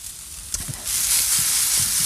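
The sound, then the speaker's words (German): Tofu sizzles in a frying pan that is getting a bit dry, a steady hiss that swells louder partway through, with a few soft clinks and stirring bumps underneath. No one speaks. “Oh, la, la, la, so, ich sehe jetzt in meiner Pfanne, wird es mir jetzt schon ein bisschen trocken. Deswegen gehe ich da jetzt Öl da hinzu.”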